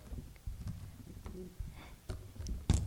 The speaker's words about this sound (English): That's the sound of a succulent. Beautiful beautiful. That can be sampled as well.